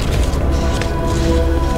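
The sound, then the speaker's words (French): A loud, dense suspense jingle plays steadily, with sustained droning tones over a rumbling low end, building tension without any voices; a show's dedicated sound design played while a paper bearing a name is chosen. “Et vous ne direz pas le nom qui apparaît sur le papier tout de suite, puisque nous avons un habillage spécifique pour faire croire qu'il y a du suspense.”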